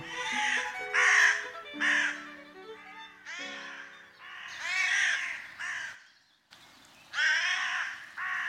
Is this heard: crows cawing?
yes